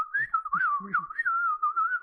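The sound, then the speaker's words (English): A person whistles, a continuous clear tone that rises and dips in quick sliding swoops for about two seconds, like calling signals, with faint low rumbles underneath. “I don't think of a job you could get where you whistle a lot. He could be like a dog trainer or something.”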